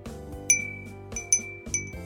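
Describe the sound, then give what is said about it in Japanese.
A wind chime tinkles three times in quick, irregular succession, each bright metallic strike ringing out and fading over a steady low hum. “えー、風鈴の音。”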